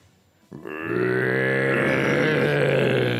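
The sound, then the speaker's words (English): A man lets out a low, sustained growl lasting a few seconds, starting abruptly after a brief quiet moment and staying loud and rough throughout. “I know it's just a growl, but it sounds cool.”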